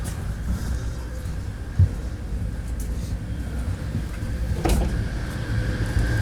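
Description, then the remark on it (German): A door of an Interregio train carriage slides and shuts with a sharp clunk, preceded by a softer thump, over the steady low rumble of the carriage interior. No one speaks. “Diese Wagen haben auch so viele Türen, ne?”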